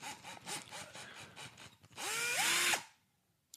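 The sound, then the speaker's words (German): A cordless drill whirs up from a standstill with a rising motor pitch, runs steadily at full speed for under a second, then cuts off abruptly; faint clicks and rattles come before it. “Jetzt, also, ein Akkuschrauber. Akkubohrer.”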